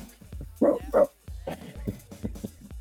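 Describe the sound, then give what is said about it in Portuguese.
A dog barks twice in quick succession, loud, followed by softer yelping and murmuring sounds that trail off. “teve latido, né, mano?”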